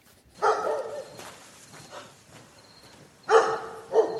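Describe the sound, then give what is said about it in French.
A dog barks loudly in short bursts: one drawn-out bark, a stretch of quieter whining noise, then two sharp barks in quick succession near the end. “Je vais commencer par tuer ce chien et puis on verra après.”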